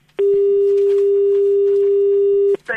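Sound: telephone line tone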